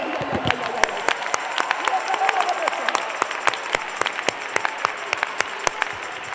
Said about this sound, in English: Oh, come on, clap your hands.